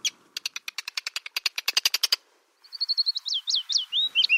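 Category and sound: bird, birds singing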